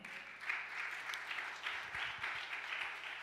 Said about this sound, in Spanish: cuántos le dan el aplauso fuerte?